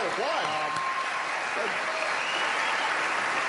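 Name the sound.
audience applause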